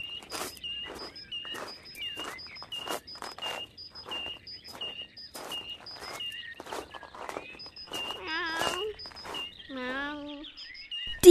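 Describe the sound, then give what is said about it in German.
A person walks a dog outdoors: steady, evenly paced footsteps crunch along, moderately loud, while birds chirp and tweet in the background. Near the end a short wavering, whiny call rises over the steps. “wir gehen spazieren, sagte Conny”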